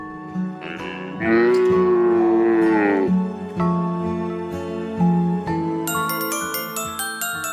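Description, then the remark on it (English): A cow gives a loud, long, drawn-out moo. A short run of bright musical notes and chiming tones follows, with no talking. “Moo, moo, said cow.”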